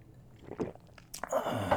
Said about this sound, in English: Let me drink this water real quick.